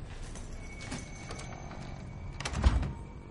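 An apartment door shuts with a solid thump near the end, preceded by a few soft clicks and footstep-like knocks as someone enters at night and switches on the light; no voices.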